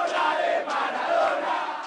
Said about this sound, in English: More than a million fans are cheering on their teams